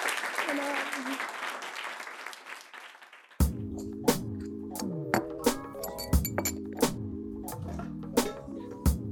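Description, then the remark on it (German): A few seconds of dense, crackling applause for the guests, then it cuts off abruptly and a music track begins with sharp, regular percussive hits over low tones. “Also einen fetten Applaus für unsere Gäste.”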